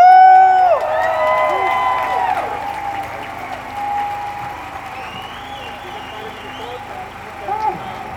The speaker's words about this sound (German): Und auch sprecht für die Organisatorinnen von letztem Jahr von der Demo. Applaus! Woo!